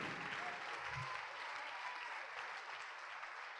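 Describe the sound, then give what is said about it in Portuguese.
Sustained audience applause during a preacher's call as many people come forward, a dense steady patter of many hands clapping at even loudness throughout, with no voices standing out above it. “Vamos aplaudir, está vindo muita gente, vamos aplaudir.”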